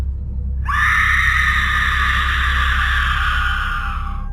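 A person lets out one long, shrill scream of terror outside houses on a street, loud and sustained for several seconds before trailing off, over a low background rumble with no talking.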